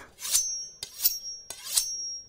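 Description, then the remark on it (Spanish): Three quick scraping strokes of a knife being sharpened during cooking, each a rasping swipe that ends in a bright metallic ring, spaced evenly at a steady rhythm with no talking. “Es importante que el cuchillo siempre esté bien afilado. Le daré una pasada.”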